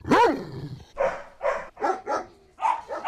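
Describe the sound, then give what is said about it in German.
A dog lets out a long, wavering yelp, then fires off a quick run of about six sharp barks, fairly loud, with no one talking. “Tatsächlich, was sagen denn eigentlich die Hundel selbst?”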